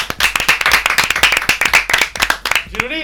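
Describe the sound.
A crowd breaks into steady applause, dense overlapping claps filling the room at a lively, fairly loud level, with a voice rising at the very end as the clapping fades.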